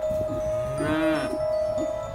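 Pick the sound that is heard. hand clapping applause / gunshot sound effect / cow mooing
cow mooing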